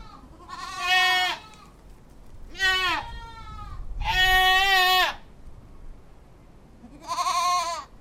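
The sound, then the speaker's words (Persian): A goat wandering about with its kids bleats four times in a row, each call a loud, wavering cry lasting about a second, with short pauses between and the longest call in the middle. No one speaks. “سگی در آستانه در لمیده بود و بزی با بچه هایش در اطراف پرسه میزد”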